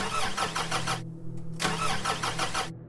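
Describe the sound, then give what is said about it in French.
A car engine cranks and sputters without catching, with two loud, rhythmic starter bursts separated by a short pause, and no one talking. The car has broken down in the middle of a road at night in Morocco in the early 1990s. “Alors qu'il fait déjà nuit, sa voiture tombe en panne au milieu de la route.”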